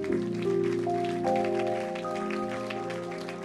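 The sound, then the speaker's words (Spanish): A church audience gives steady applause, a dense crackle of many hands clapping, filling the whole stretch over sustained keyboard chords and holding fairly loud throughout. “Así que desen un fuerte aplauso por eso.”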